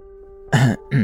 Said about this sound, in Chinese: 尴尬的氛围蔓延在两个人之间。蒋泽旭十分不自然地清了清嗓子，说道